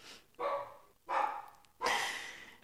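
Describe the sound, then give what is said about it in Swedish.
A dog, shut outside behind a closed door, barks three times in a steady rhythm, each bark a full, rough burst, sounding somewhat muffled, with no one talking. “Hunden känner inte stark lycka nu när vi har stängt honom utanför dörren.”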